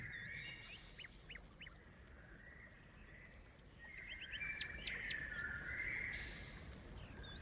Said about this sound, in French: Il y a les oiseaux et, tout, juste derrière, écoutez bien. Il y a la petite, euh, la petite rivière.